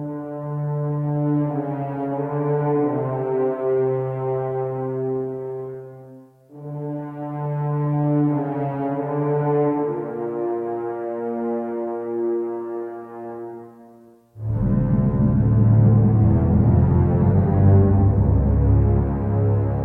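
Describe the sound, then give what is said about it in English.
A dark orchestral theme of sustained low brass, low strings and a choir swelling in long, heavy chords, then bursting into a louder, denser passage near the end, with no talking. “He uses low brass, low strings, there's a choir.”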